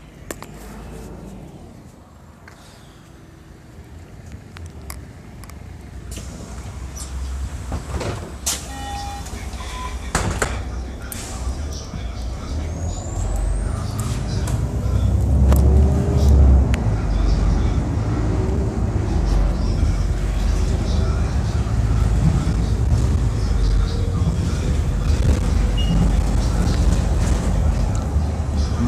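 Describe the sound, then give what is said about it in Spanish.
A city bus's deep engine rumble builds and grows louder as it pulls up, with scattered clicks and clunks, a brief whir and street noise around it; no one speaks. “Bueno, viene el autobús, un segundo.”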